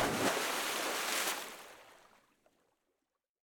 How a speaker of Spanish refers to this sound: Se distrajo en buscar hacia todos lados con esa sensación extraña que no pudo evitar tropezar y caer a la piscina.